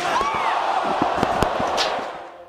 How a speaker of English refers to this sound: For all its silliness, pro wrestling is deadly serious, with the emphasis on deadly. Those chairs that were wrapped around wrestlers' heads.